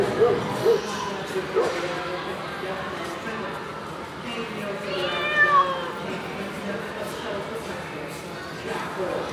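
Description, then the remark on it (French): A cat meows a few times amid a busy, noisy background, with indistinct voices and general bustle around it; the meows are moderately clear. “Si vous avez spécialement peur des chiens ou des chats ou des oiseaux, vous avez sans doute fait plus attention et repéré les aboiements ou les miaulements ou les chants d'oiseaux.”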